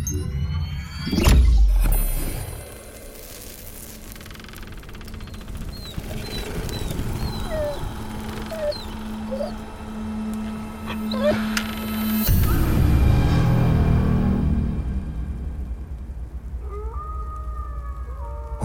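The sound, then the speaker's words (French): Eerie, far-off howling rises and falls in long wavering cries over a low droning rumble, with a few sharp thuds. No one speaks. “Entendez-vous au loin cette complainte bestiale Ce hurlement entêtant à faire naître des frissons le long de votre colonne vertébrale un hurlement primitif, tutoyant de près la mélancolie”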